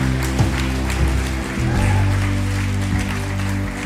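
A crowd claps steadily for a few seconds, the dense, crackling applause running over a sustained low musical drone that holds underneath throughout.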